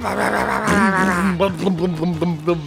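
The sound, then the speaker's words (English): A buzzing motorcycle engine drones and rises in pitch as bikes ride in, then revs in several short, sharp bursts, with no talking over it. “I hear those bikes riding in.”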